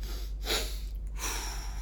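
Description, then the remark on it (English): Audible breathing with no talking, a physiological sigh: a quick sharp intake of breath, a brief pause, then a longer, steady breathy exhale that continues to the end. “versus long exhales controlled nasal breathing as quickly as possible between an interval or what they call the physiological sigh which is like a double inhale long exhale”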